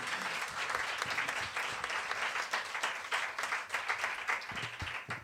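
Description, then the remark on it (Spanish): Steady applause from a crowd for the musicians of a band fills the whole clip, a dense wash of many hands clapping at once with no pauses, holding a fairly even loudness throughout. “Hola, aplauso a todos los músicos de ….”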